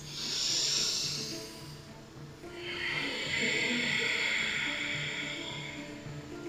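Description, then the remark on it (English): An audible breath drawn in through the nose, then a long, steady, rushing exhale through the nose with a throaty roar, as if fogging a mirror, during a guided nasal breathing exercise. Heard alone without talking. “And then you're gonna exhale through your nose like you're trying to fog up a mirror that's right under your nose, like kind of like a roar through the nose.”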